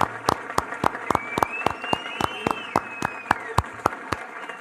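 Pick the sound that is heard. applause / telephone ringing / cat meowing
applause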